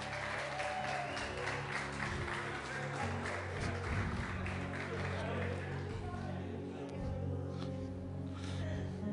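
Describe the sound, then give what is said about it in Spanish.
A crowd bursts into sustained, dense applause for several seconds, then gradually thins out and fades, with a low murmur of voices underneath. “Un aplauso al hermano nuevo, regresó a casa.”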